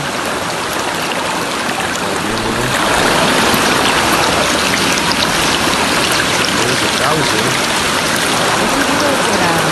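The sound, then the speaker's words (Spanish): A swollen river that has overflowed its banks after rains caused flooding in Cantón Santa Cruz, San Alejo municipality, La Unión, rushing loudly and steadily, a dense continuous roar of churning water that swells slightly louder after the first few seconds. “mira, aquí podemos ver cómo se desbordó este, este río.”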